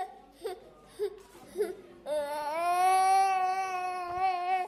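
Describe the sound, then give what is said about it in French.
A baby fusses with a few short whimpers, then breaks into a loud, sustained wail that holds steady for several seconds. “Avec son bébé, Niséré est désespéré.”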